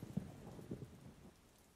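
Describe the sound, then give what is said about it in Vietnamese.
A quiet thunderstorm: steady rain hiss with low, rolling thunder rumbles in the first second that fade toward the end. No one speaks. “đã bị sét đánh chết trong cơn bão”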